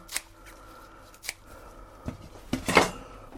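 Scissors snip fresh parsley in a salad bowl, cutting it small: a few separate crisp cuts, then a quicker cluster of snipping near the end, with no talking.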